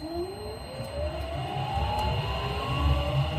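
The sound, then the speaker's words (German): A 19-ton electric truck, driven by a trainee truck driver in Stuttgart, starts up with a quiet, steady whine rising gradually in pitch over a low rumbling hum, no engine roar, continuous throughout. “Wenn er in seine 19-Tonner einsteigt und startet, dann klingt das in etwa so.”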